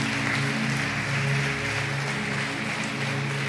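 An audience applauds steadily, a dense wash of many hands clapping at an even level for the whole few seconds, with a low droning hum underneath and no voices.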